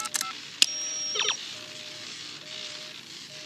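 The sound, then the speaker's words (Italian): A rapid series of short electronic keypad beeps as a destination time is entered on a time machine's keypad, bright and high-pitched, with a sustained tone in the middle, then fading to a faint electronic hum. No one speaks. “Registri il tempo di destinazione su questa tastiera.”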